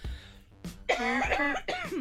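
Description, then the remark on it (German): A short bout of coughing: several harsh, raspy bursts in quick succession, some with a throaty voiced rasp, fairly loud, with no talking around them. “Sorry, ich musste kurz husten.”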